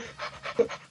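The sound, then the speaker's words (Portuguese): A person imitates a Labrador dog panting: about four quick, breathy huffs in a steady rhythm, moderately loud, with no words spoken. “Que barulho é esse? Não, é que eu tenho um focinho de labrador no é meu rego.”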